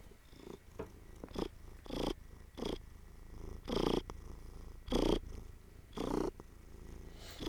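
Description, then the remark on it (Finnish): A cat lying on the ground purrs in a steady rhythm, each inhale and exhale swelling into a louder rumbling pulse about once a second, with no talking over it. “On pakko vähän tätä tota kehrasta.”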